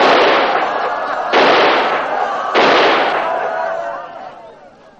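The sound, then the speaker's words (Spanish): Three loud gunshots fired into the air by an officer standing on a barrel, about a second apart, each a sharp crack trailing off into a long, rumbling decay, with a faint murmur of voices underneath. “Un oficial sube a un barril y dispara al aire.”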